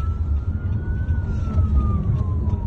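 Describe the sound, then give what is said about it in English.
Police escort sirens wail in a slow rising and falling sweep over a heavy, continuous rumble of road traffic and engines as the escort accompanies a convoy of cars into Georgetown, Guyana. “The convoy of cars whisks the family away, a police escort accompanying them, sirens wailing, into Georgetown, the capital of Guyana.”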